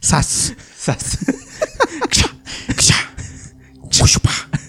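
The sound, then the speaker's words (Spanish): A voice, asked to mimic an axe felling a tree, imitates a whip crack with sharp, hissing bursts, repeated a few times, mixed with bits of casual talk between them. “ah, no, eso es un latigazo.”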